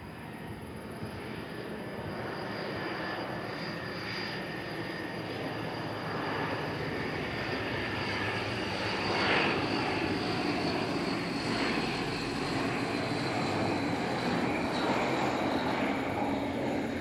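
A small propeller airplane drones steadily overhead, a continuous engine hum with a faint whine that swells slightly midway, with no voices. Recorded not far from a military airport.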